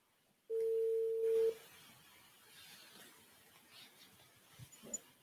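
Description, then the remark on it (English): A loud, steady telephone dialing tone sounds once for about a second as a call is placed, then cuts off, leaving only faint background noise with a few soft knocks. “Um, so I'll just try calling her.”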